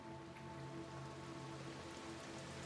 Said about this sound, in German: Du kommst dunkleren Wolken näher und spürst die ersten Regentropfen.